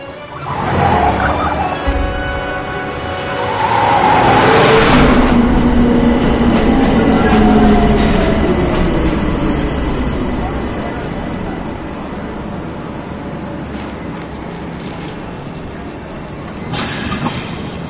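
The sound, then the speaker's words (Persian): A crowded subway train rumbles steadily along the rails with a broad, loud roar, swelling in the middle and easing off, with faint metallic squeals and murmured voices mixed into the din. “ببخشید دیر کردم و مترو خیلی شلوغ”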